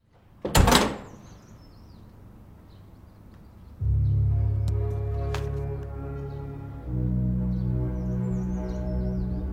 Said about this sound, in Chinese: 这天，王成正要出门跑步，结果一开门。